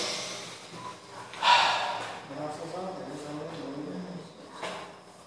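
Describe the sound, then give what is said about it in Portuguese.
A person deliberately takes a deep, audible breath, a sharp airy inhale followed by a slower, breathy exhale, with faint voiced sounds in the background. “Você está respirando? Faz assim, ó.”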